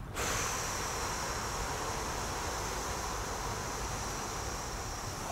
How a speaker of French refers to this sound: Dès que vous êtes prêt, vous, prenez une grande respiration. Voilà. Super. Vous fermez les yeux, vous soufflez.